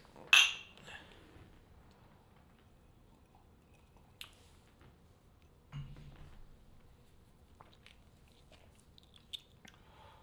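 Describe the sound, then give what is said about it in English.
Whiskey glasses clink once in a toast, a bright, sharp ring at the very start, followed by near silence with a few faint small clicks and soft mouth sounds. “Let's give it a taste. Cheers. Cheers.”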